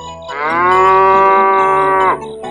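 A cow gives one long, loud moo lasting nearly two seconds, holding a steady, rich tone before dipping slightly and cutting off. No one speaks.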